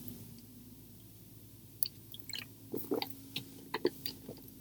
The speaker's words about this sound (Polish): Łyczek wody.